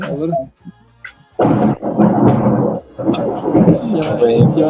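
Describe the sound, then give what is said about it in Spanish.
A brief voice, a short lull, then a loud roll of thunder rumbling continuously for several seconds, deep and heavy. “sí, también está aquí viendo los truenos.”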